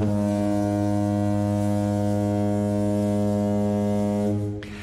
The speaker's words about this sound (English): and let's uh, fire off a perfunctory spoiler horn because it. Although, why would you be listening to this if you didn't want it? So here it goes.